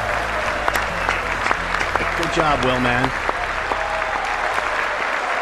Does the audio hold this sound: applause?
yes